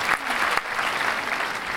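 Steady audience applause, a dense wash of many hands clapping at once, fairly loud and continuous for the whole moment with no voices standing out.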